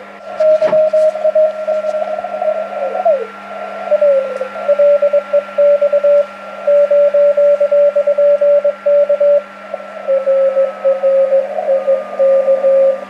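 Slow Morse code sent between radio amateurs on an amateur radio band: a steady mid-pitched tone keyed in unhurried dots and dashes, heard over a constant low hum and faint radio hiss, with no voices.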